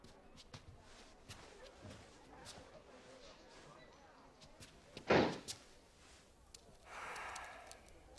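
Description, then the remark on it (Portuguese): A door slams shut once, a loud thud partway through, set against a quiet murmur, with a soft rushing hiss shortly afterward. “a porta.”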